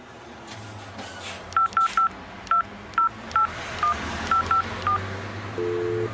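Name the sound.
telephone dialing a number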